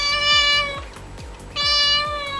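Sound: domestic cat meowing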